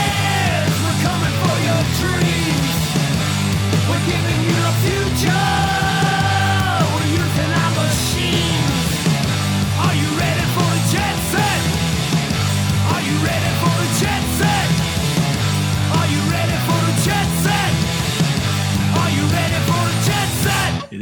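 A loud, dense music track plays continuously, with heavy low-end instrumentation and sung, somewhat shouted vocals over a full band, filling the whole stretch without any talking.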